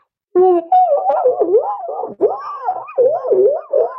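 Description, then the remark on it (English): A human voice imitates dolphin noises with a continuous stream of high, wavering squeals and chirps that swoop up and down in pitch, loud, with no words spoken. “making the dolphin noises that it did”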